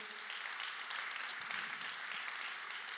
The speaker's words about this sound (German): Komm, lass uns denen nochmal einen riesen Applaus geben. So cool.